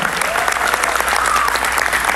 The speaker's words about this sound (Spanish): Que se siente ese aplauso.